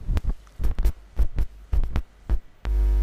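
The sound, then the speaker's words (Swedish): A series of dull, irregular thumps, then a loud, steady audio feedback hum suddenly kicks in and holds at the very end, droning with a buzzy, harmonic tone. “Där får vi lite rundgång genom eh, nå den.”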